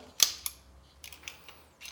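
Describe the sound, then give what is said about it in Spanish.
A pistol being taken apart for cleaning: with the magazine removed and the hammer lowered, a small part is turned and the slide pulled back, releasing the mechanism: a sharp metallic clack, a second click, then a cluster of softer scraping clicks and a final faint snap, with no talking. “Y para, para desarmarla, lo único que tenemos que hacer es darle vuelta a esta piececita, jalamos carro”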